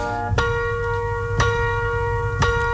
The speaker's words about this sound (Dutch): En slaat de klok vijf uur.